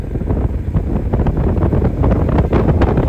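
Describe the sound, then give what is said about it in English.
Loud, continuous wind buffeting the microphone, a dense low rumble with gusty bursts throughout and no clear voices, recorded while moving down a hill at 80 miles per hour. “It's probably windy in the mic, but that's okay.”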